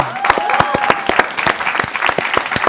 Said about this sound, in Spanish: Un aplauso a la mamá.